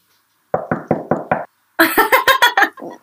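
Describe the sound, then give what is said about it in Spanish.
Knocking on wood: five steady, evenly spaced knocks, a short pause, then a louder, quicker flurry of sharper raps. No one speaks. “el Hernán pensó que estaban tocando la puerta como un delivery”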